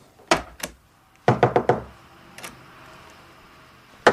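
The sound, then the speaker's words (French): Knocking on a door: two raps, then a quick burst of four firm knocks, followed by a softer single knock and one final sharp rap, clear with no voices. “On peut entrer C'est privé.”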